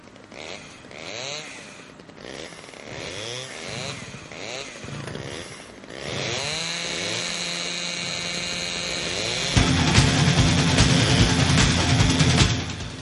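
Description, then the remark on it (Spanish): A chainsaw engine revs up and down in rising, sweeping bursts, then settles into a steady loud drone that grows harsher and louder toward the end. “Vamos a ir arrancando un poquito a golpe de motosierra.”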